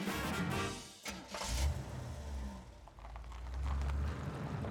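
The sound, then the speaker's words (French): A car engine turns over and catches, then rumbles steadily as the car pulls away and drives from New York to Philadelphia in midwinter, a low mid-range motor hum with a brief dip before rising again. “Alors, avec son nouveau-né, son mari et son père, le seul dans sa famille qui a une voiture, elle se rend de New York à Philadelphie en plein hiver.”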